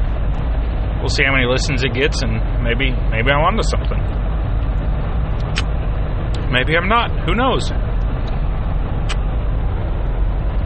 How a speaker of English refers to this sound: Um, but here I am, man, driving home in this jeep. So if you hear some rumbling in the background or some noise, it's literally the road.